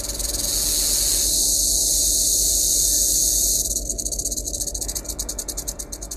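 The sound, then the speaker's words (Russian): A rattlesnake's dry, hissing rattle buzzes loudly and steadily, then shifts into a pulsing, shuddering rhythm as its rate changes; as a person approaches, the snake abruptly raises the rattle rate, roughly doubling it. No voices are heard. “Они усиливают треск по гремушке по нелинейному закону.”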